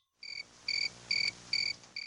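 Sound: cricket chirping sound effect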